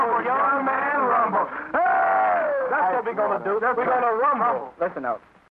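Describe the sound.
Mourners in the street in Thailand weep and wail after the death of King Bhumibol at age 88, in loud, wavering cries, several voices overlapping in a continuous outpouring of grief that trails off at the end.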